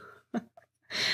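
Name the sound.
sneeze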